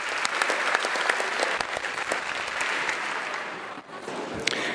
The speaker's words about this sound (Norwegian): Dagen etter ble han møtt med langvarig applaus da han kunngjorde avgjørelsen sin i nasjonalforsamlinga.